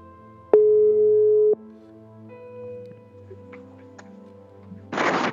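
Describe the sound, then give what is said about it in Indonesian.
A phone dialing tone sounds once as a loud, steady one-second beep, then fades to a low hum before a brief burst of static near the end. No one speaks. “Coba kita telepon”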